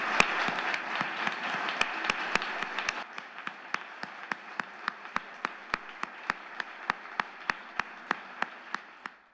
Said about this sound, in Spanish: No puedo en este momento omitir que el día de hoy estamos despidiendo al gran Alejandro Luna, para quien pediría que le hiciéramos un reconocimiento con un minuto de aplausos a su larga trayectoria.